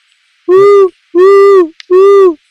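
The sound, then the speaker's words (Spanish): A Puerto Rican screech owl (mucarito), the only owl species in Puerto Rico, gives three loud, dove-like hoots, each about half a second long with brief pauses between them. No one speaks. “también el mucarito, que es el único búho de Puerto Rico. ¿Lo han escuchado en las noches? Suena como una paloma.”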